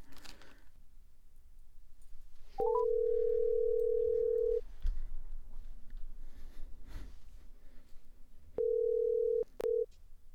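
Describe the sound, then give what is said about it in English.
A few quick dialing beeps as a phone call is placed to a guest, then a steady telephone tone hums for about two seconds and returns in two shorter bursts near the end, over faint background noise with no talking. “We'll be giving him a call here.”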